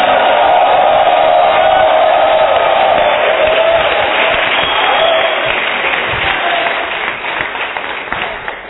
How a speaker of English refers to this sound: Why don't you lift up your voice, clap your hands, and give the Lord a shout?